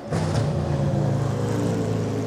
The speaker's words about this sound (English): Wait for the engine to kick in, and there it goes.